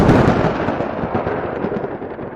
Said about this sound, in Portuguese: Gaia enfureceu-se. Trovoadas ribombaram no universo.